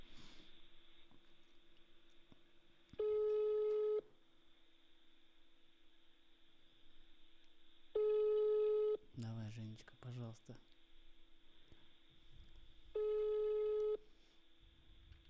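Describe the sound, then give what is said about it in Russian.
A phone line rings out with three steady one-second ringback tones about five seconds apart, clear, while a person talks quietly in the gaps between them. “О, о, пошел звонок.”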